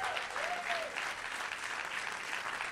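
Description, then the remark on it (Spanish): An audience applauds God steadily during a church sermon, a dense wash of many hands clapping at an even level throughout, with a faint voice briefly rising over the clapping near the start. “Si tú lo estás creyendo, vuelve a aplaudir a Dios por eso.”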